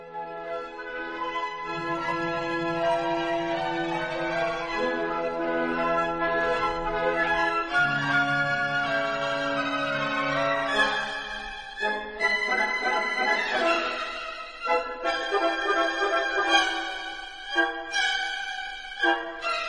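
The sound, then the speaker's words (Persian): A recording of classical orchestral music by Richard Wagner plays with no talking: rich sustained chords and low string-like notes at a steady, fairly loud level, shifting partway through into more accented, rhythmic phrases. “حالا برای اینکه ما هم بریم تو جو خونه هاکینگا بذارید ما هم یکم ریشارد واگنر گوش بدیم”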